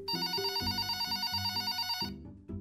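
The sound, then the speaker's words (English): A telephone bell rings steadily for about two seconds with a bright, buzzing tone over shifting low notes, cuts off abruptly, then gives one brief final jingle. “Have you ever had a phone call that changed your life?”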